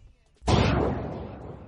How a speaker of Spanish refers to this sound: Joder, esto es el sonido de un disparo.